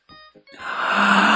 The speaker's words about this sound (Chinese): 小熊的哈欠又飞走了，飞到哪儿去了呢？哈啊！